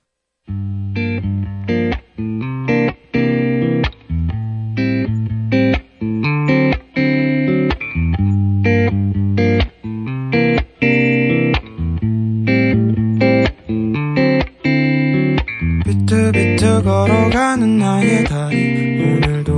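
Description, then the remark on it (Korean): A loud song, a listener's request played on the radio show Radio Detox, plays on its own, driven by choppy, stop-start band chords with brief silent gaps between hits, building into a brighter, denser full sound near the end. “노래 또 들어볼까요? 0577님의 신청곡이에요.”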